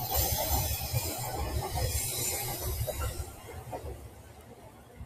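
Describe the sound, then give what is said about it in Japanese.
A train rolls past, a loud steady rumble with a rushing, hissy top that slowly fades over several seconds, with faint indistinct voices underneath. “あ、電車が、電車怖いんですよ、なんか。”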